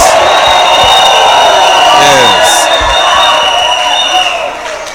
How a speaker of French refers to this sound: Est-ce qu'on peut pousser des cris de joie Les bergers en chef Les bergers en chef Yes